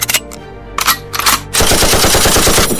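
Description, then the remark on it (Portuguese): A few loud, separate gunshots ring out, then a sustained burst of rapid automatic fire rattles on to the end: four or five shots fired at once toward a creature. Harsh, with no voices. “Você joga o corpo para dentro da sala, dispara uma rajada de tiros em direção à criatura.”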